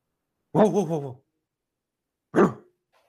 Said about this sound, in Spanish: se escucha el ladrido de Chusma.